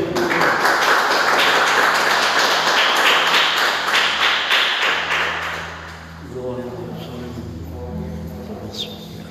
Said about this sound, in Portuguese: Uma salva de palmas para Jesus, amém?